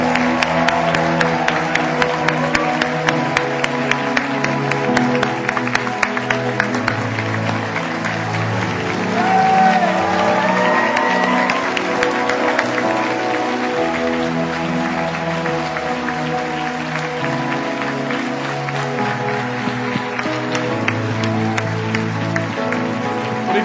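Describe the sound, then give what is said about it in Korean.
A church audience claps and cheers to welcome their new senior pastor, in a steady, dense wash of applause that holds its level for over twenty seconds, with sustained music-like tones running underneath. “우리 목사님 앞으로 모실 텐데 여러분 박수 한번 Let us welcome our new senior pastor,”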